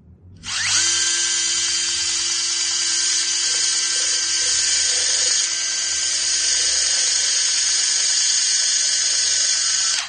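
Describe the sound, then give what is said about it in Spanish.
A loud, high-pitched surgical drill whines steadily and without a break for about nine seconds after a brief quiet start, its piercing tone holding constant with no voices, as it drills a small hole in a patient's skull to place a new implant. “Así que notará alguna molestia en forma de presión y un fuerte ruido vibrante en la cabeza, lo cual, por supuesto, es totalmente normal.”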